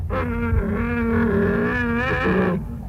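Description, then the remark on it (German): A brown bear growls in one long, rough, rumbling vocalization lasting a couple of seconds, loud, with no voices around it. “Und fast im ganzen Land leben Elche und Braunbären.”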